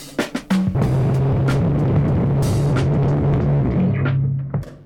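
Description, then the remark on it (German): Harsh electronic feedback drones loudly throughout, a steady low tone buried in crackling, hissing noise with sharp pops and bursts of static, ending abruptly. No one speaks. “Es britzelt und quietscht und zischt.”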